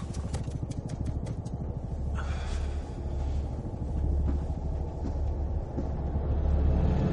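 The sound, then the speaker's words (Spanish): Heavy vehicle engines rumble steadily as a military off-road vehicle advances through the Chernobyl facilities and several army trucks pass it, a dense low drone with a few metallic clanks early on, swelling slightly louder toward the end. “Un todoterreno militar avanza por las instalaciones de Chernóbil. Varios camiones del ejército se cruzan con él.”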